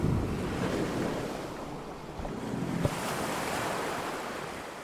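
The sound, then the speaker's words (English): Rough sea surf churns and crashes continuously while gusty wind roars across it, a dense, steady storm wash with one brief sharp knock partway through and no voices. “They came up out of the smothering green seas and saw the stars blinking in the sky and heard the wind howling like a pack of dogs.”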